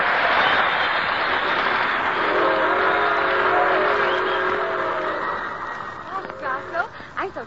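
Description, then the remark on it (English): A passenger train with a Pullman car rolls along with a steady, loud rumble, and a long whistle sounds over it for a few seconds in the middle. A voice starts talking near the end. “glad we're taking this trip. I love trains.”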